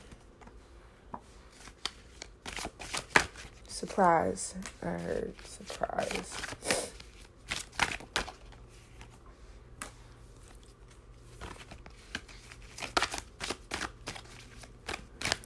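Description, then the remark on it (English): A deck of tarot cards is shuffled and handled as cards are pulled: rapid, crisp riffling and flicking bursts come in clusters throughout, with a short stretch of speech partway through. “Hold on, I'm just pulling the card.”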